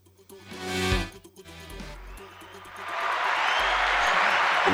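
An audience bursts into applause for a guest, the clapping swelling into a steady, dense roar that carries to the end, following a brief stretch of voice and tonal sound at the start.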